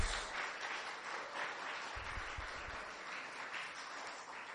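Steady audience applause of many hands clapping at once, a dense crackling wash of claps that holds its level throughout, with a few low thumps partway through and no voices.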